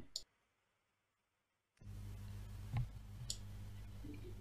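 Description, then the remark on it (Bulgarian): A lighter clicks once sharply, then after a short silence a steady rushing hiss with a low hum takes over, broken by a couple more crisp clicks. “Това беше запалка.”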